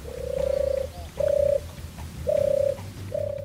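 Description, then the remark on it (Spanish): Pigeons coo in a slow series of low, steady, droning calls, about four of them in a loose rhythm, clear over a faint low background rumble. “Las palomas se han convertido en una plaga en Veracruz que genera problemas, afecta la conservación de inmuebles y propaga enfermedades”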